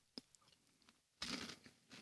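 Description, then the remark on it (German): Crisp crunching as a very sweet candy is chewed: a sharp bite early on, a few faint clicks, then a longer loud burst of grinding crunches and another bite at the end. No talking. “Oh, es nusselt. Es knirscht. Oh. Furchtbar süß.”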